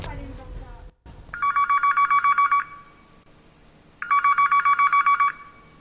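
An old telephone bell rings a minor third interval from G in two loud bursts of rapid trilling, each lasting just over a second, separated by a short pause.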